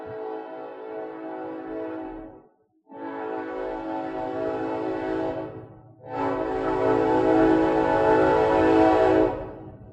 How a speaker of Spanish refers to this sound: Oigan, miren, otro recuerdo de antaño viene ahí. Se, está acercando el tren, vivo atrás del tren. Otra manera, una manera real y eficiente de, de mover vienes y me da mucho gusto que, siga existiendo. Ahorita va a pasar.